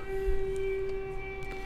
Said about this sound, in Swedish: Oj, det är en gammal ångbåt som åker där ute på älven.